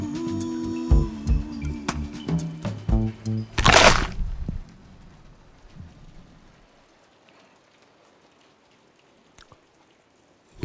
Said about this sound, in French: Tu entends la petite musique de la pluie La pluie sur la fenêtre. C'est magique, non